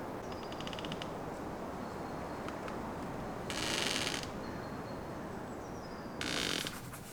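A pen scratches across paper in two short bursts of strokes, close and crisp, over a steady low background hiss with faint high tones drifting through.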